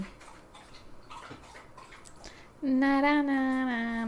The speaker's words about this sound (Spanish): Bueno, oigan, está tomando agua Reggie.